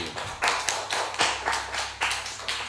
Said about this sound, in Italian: La sigla è veramente frizzante eh, è finita e questo è il nostro applausometro, signori.